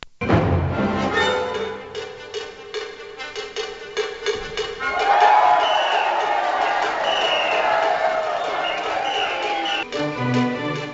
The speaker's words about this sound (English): And the opening piece was titled Seven O'Clock Shout recreating the banging of the pots and pans in honor of New York's healthcare workers early in the pandemic. Here's how it sounded. You'll hear the audience cheer.